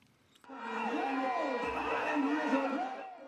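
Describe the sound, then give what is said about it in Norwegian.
A crowd of supporters of Ugandan President Museveni cheers loudly, many voices rising together in sustained shouts and wavering calls that start abruptly after a brief quiet moment and hold steady to the end. “Tilhengerne til Museveni jubler.”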